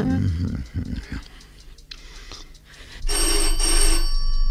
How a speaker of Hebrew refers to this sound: טלפון! זה יכול היה להיות. אתה שומע בעצמך, אני לא חלמתי. זאת חוצפה בלתי רגילה להטריד אנשים בשעה זו. למה אתה לא מרים את השפופרת?